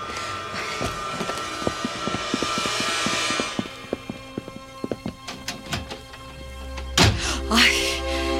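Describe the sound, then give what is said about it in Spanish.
Captain Marsden knocks on a door: a series of sharp knocks, irregular and fairly loud over a steady hiss, followed by a heavier thud near the end. No one speaks. “Es él quien golpea la puerta.”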